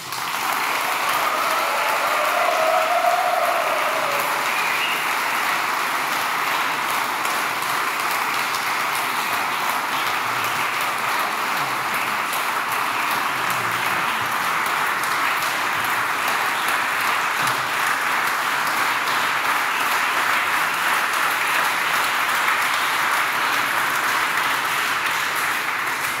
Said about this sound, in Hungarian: Egy nagy tapsot szeretnénk kérni az összes képviselőjelöltnek.